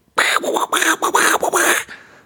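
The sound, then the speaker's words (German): A voice imitates a duck with a run of loud, nasal quacks, about five in quick succession, uneven in rhythm, trailing off at the end. “Äh, ähm, äh, äh Enten. Quark, quark.”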